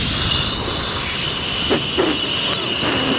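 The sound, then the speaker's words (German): A large creature, the dinosaur Dino, blows hard to blow out a volcano, producing a steady, loud rush of breathy air that continues throughout, with a few brief extra puffs near the end. “Weiter pusten, Dino, schnell!”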